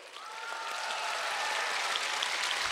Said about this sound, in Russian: Отлично! Еще больше бурные аплодисменты!